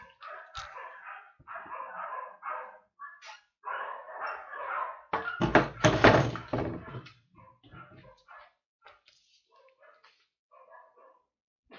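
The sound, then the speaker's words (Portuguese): Several dogs bark in rapid, overlapping bursts outside a window, followed by a loud clatter as the window is closed, after which the barking carries on more faintly and muffled. “Vocês estão ouvindo a cachorrada, né, gente?”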